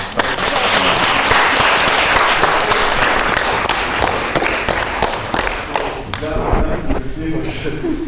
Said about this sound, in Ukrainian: Зал подякував бійцю овацією. Всі встали, і в багатьох на очах бриніли сльози, і в актрис також.